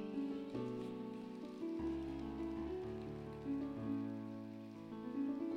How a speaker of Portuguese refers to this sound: Quem crê, aplauda o Senhor Jesus aí.